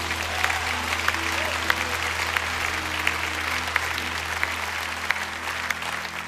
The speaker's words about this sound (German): Ihr Lieben, können wir Jesus mal Applaus geben heute hier im Haus.